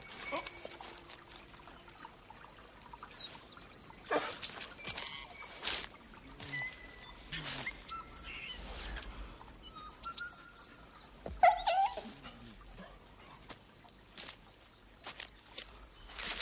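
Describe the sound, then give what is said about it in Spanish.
The dog accompanying Stewart moves about outside the house, with scattered rustling and shuffling bursts at a fairly low level, while muffled voices murmur faintly in the background. “de la casa, Stewart ronda acompañado de su perro.”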